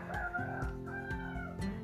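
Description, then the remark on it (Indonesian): A chicken clucks and calls in a steady series of about four loud, nasal squawks, each roughly half a second apart, with no one talking. “kenapa closingannya sama ayam ya begitulah”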